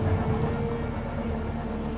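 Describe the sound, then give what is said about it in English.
A steady low rumble of a train rolling along the rails, continuous and fairly loud, with a droning hum and no voices. “the vibrations of the train.”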